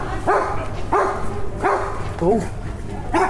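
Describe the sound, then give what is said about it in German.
Dogs bark in a quick, steady series of about five loud barks, one higher and yelpier than the rest, with the smallest dog the loudest while the two big ones stay quiet, as a person briefly exclaims in the background. “Hier, Hunde treffen. Aber wirklich.”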